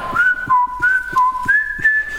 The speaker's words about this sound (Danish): til sidst, hvor, øh, hvor morderen står og fløjter.